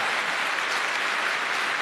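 An audience applauds loudly and steadily for the Lord, a dense wash of many hands clapping with no break and no voices rising above it.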